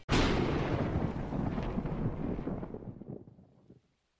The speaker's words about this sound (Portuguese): nessa noite chuvosa onde os trovões ecoam pelos salões do castelo.